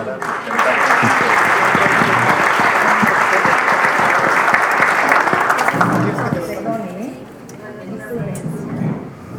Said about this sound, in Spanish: la señora secretaria que tiene un compromiso muy importante sobre el tema del presupuesto de la Secretaría y le agradecemos su presencia, la, despedimos con un aplauso.